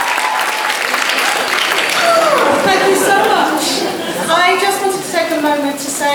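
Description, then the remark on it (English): An audience of about 700 invited friends at the first dress rehearsal of the stage show Wise Children claps steadily and cheers, a dense wash of applause that swells slightly midway, with whoops and shouted voices rising over the continuous clapping. “We've invited some friends to cheer us on our way, about 700 of them.”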